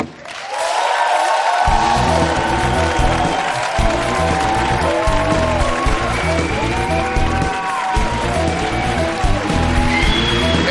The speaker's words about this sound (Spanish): Así que, por favor, recibí con un fuerte aplauso a la jugada de la Selección Española de Fútbol, Mapi León.